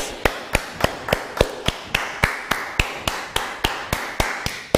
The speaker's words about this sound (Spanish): Ahora sí, un fuerte aplauso a todas las naciones.